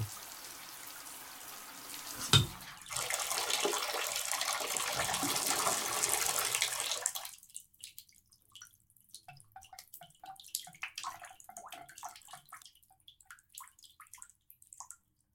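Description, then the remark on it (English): Water runs steadily from a shower in an apartment in Paris for about seven seconds, with a brief knock early on, then shuts off, leaving scattered drips and small trickles. “And now the shower in my Parisian apartment is the same, but it feels so different after everything.”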